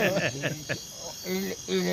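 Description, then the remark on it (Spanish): A human voice imitates a chirping cricket with a quick series of short, squeaky chirps, followed by two longer trilling notes, fairly loud, with no other talking. “Habla como grillo.”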